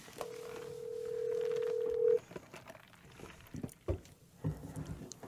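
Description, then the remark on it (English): A phone call is placed, the line ringing with one long, steady electronic tone lasting about two seconds, followed by quieter line noise and a few soft clicks. No one speaks. “We'll give him a call now just to figure out everything that's going on with Chris.”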